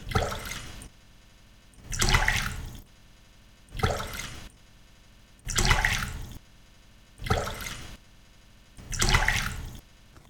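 Water is poured out six times in a steady rhythm, each a loud, splashy gush lasting about a second, separated by short quiet pauses, with no talking, as Toad pours many cups of water over his own head.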